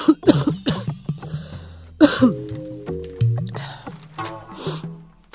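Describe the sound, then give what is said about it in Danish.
A woman smoking a cigarette coughs several times in uneven bursts, moderately loud, with raspy throat-clearing sounds in between and no speech. “Fortsætter hun gennem røgen og klør sig på det blottede lov og hoster.”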